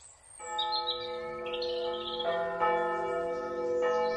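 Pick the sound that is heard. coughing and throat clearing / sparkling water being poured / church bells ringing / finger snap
church bells ringing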